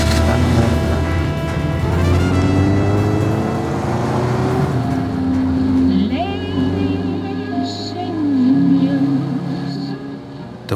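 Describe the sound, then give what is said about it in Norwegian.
A low, red two-seater Morgan sports car driving with its roof down on a warm late-summer day; the engine drones loud as it drives steadily, its pitch climbing and dropping through a couple of gear changes, with rushing wind noise around it. “en varm sensommerdag, og jeg kjørte med kalesjetaket nede. Bilen min er en toseters Morgan Roaster, lav, sint og rød.”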